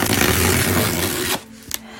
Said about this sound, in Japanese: ギフトを開けていきたいと思います。はい何が入ってるか楽しみですでは開けてみたいと思います